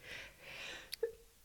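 A single quick sneeze, a sharp burst with a short voiced tail, comes after a soft breathy intake. It is fairly quiet, with no talking around it.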